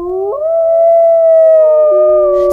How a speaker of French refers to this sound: Tout à coup, ils entendent des hurlements.